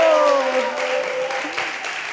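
A crowd cheers loudly for a young couple from Friedrichshafen, with one voice letting out a long, falling shout over a steady wash of clapping and yelling that carries on for the whole two seconds.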